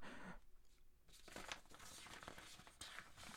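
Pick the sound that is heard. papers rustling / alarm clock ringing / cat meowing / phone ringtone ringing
papers rustling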